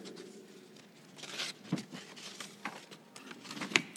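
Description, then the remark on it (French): Soft rustling and papery crinkles as sheets of paper are shuffled and straightened into order, in several short bursts over a few seconds, with no one speaking. “Je mets un peu d'ordre dans mes feuilles parce que tout ça est, fait un peu comme ça.”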